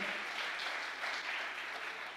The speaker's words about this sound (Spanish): Vamos, iglesia, denle el aplauso fuerte.